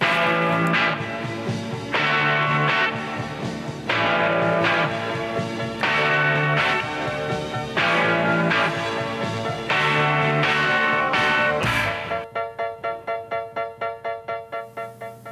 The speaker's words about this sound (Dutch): Ja, je hoort de piano op de achtergrond.